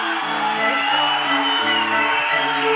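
An audience claps and cheers steadily throughout, a dense wash of applause layered over music with a stepping melodic line and sustained notes, all fairly loud.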